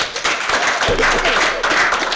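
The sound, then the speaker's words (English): A small group clapping, a dense patter of overlapping hand claps that holds steady and fairly loud for about two seconds, with no voices over it. “ten, ten people in that AA meeting ass clap.”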